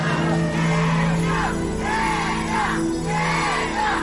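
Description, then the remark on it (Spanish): A large crowd in León, Guanajuato shouts and whoops continuously, voices rising and falling in loud overlapping waves of cheering that fill the space without a pause. “Esos gritos de León, Guanajuato se quedaron para siempre en mi corazón y ahora también en el programa.”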